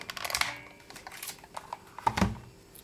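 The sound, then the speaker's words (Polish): A braille label maker clicks as its lever is pressed, followed by a sharper snip as the plastic tape is cut: a few crisp mechanical clicks ending in one heavier clack, with no talking. “Dźwięk, naciśnięcia i dźwięk przecięcia.”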